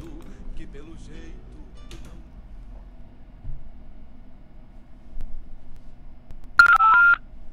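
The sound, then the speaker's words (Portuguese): On the radio program Hora do Verso on Rádio Regional.net, a brief cluster of loud telephone keypad tones near the end as the studio phones a guest, following a quiet stretch with faint low background rumble and some soft talk early on. “Vamos entrar em contato com ele já. Vamos ver se ele está disponível no telefone.”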